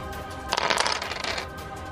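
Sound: dice being rolled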